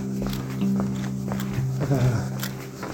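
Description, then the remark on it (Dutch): Footsteps walk into the Oosterbeekstraat, a quiet street, a series of short taps over a steady low hum, with faint murmuring in the background. “Ik loop de Oosterbeekstraat in waar de burgerwacht zo meteen gaat beginnen met lopen.”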